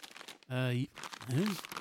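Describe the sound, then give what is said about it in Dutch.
Steady crinkling and rustling of crumpled papers, stuffed into a bag in a hurry, being rummaged through by someone searching for them, broken by two short voiced utterances. “Dan stop je het allemaal maar in je tas en dan verfrommelt het en zo.”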